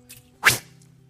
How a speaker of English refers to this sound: this was a whip with leather pieces on it, and tied in the leather pieces were bits of bone, glass, sharp rocks. And these, it was like a whip that had many ends on it and, you know, a couple feet long. And the person doing the scourging would whip